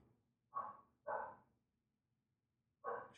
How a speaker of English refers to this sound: Why is my dog barking?